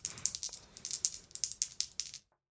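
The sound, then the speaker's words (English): Challenge dice are rolled, rattling and clattering in a quick burst of a dozen or so sharp, irregular clicks over about two seconds, then sudden silence. No one speaks. “We're going to roll our challenge dice against our progress of nine, and we're going to hope for a strong hit here.”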